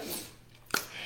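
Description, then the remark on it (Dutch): A printer runs with a steady mechanical whir and rustle of paper as many printouts come out, broken by one sharp click partway through; no one speaks. “Kijk, dan gaat er zomaar een printer uit.”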